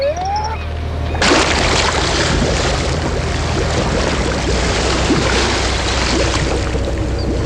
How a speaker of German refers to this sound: warf den Motor an und die Seilwinde hob die Deep Quest ächzend in die Höhe, bis sie über dem Wasser schwebte. Schließlich tauchte sie halb ins Meer ein.